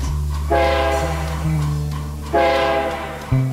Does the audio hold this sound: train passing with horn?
yes